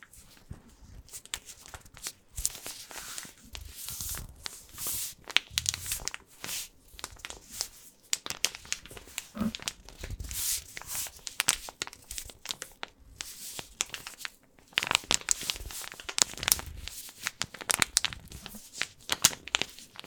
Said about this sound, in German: das Knistern der vollen Packung Mehl.